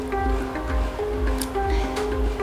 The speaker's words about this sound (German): Falls ihr euch fragt, warum es hier so laut ist, wir wohnen sehr, sehr zentral in Hanoi, da könnt ihr uns beglückwünschen, aber es hat den negativen Nachteil, dass es immer sehr, sehr laut ist.